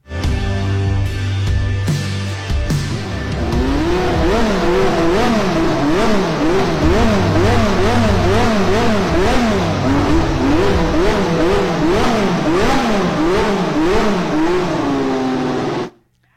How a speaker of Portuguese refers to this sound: Olha só o carro aí tirando a tampa do motor, vamos trocar o óleo ali. Vamos ouvir então o motor da McLaren.